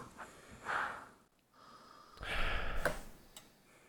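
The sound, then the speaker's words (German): Breathy sniffing with no talking: a short sharp sniff, a pause, then a longer, louder drawn-in inhale through the nose as someone smells a glass of Pils beer during a tasting. “Ja, mal kurz einmal eine riechen bei meinen.”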